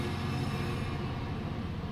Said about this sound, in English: Is that another train? It's a Freightliner.